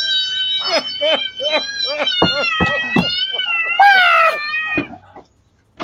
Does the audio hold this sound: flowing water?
no